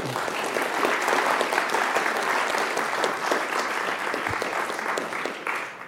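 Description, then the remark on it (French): An audience at a lecture in Lausanne applauds the speaker steadily for several seconds, a dense wash of many hands clapping at even loudness that tapers slightly at the end. No one speaks. “Alors, je crois qu'on peut l'applaudir, c'est magnifique.”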